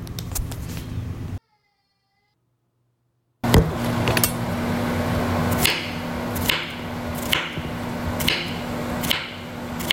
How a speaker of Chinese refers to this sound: 我在切櫛瓜，好哦，櫛瓜，干煎櫛瓜。